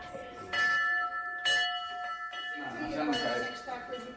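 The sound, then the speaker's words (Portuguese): A small hand bell clangs repeatedly in quick, uneven strokes, its bright ringing tones sustaining over background chatter and movement, at the pediatric ward of the IPO cancer institute in Porto, Portugal, rung to celebrate the end of a child's cancer treatment. “Lutar, vencer, celebrar a pediatria do IPO do Porto tem um sino que toca esperança.”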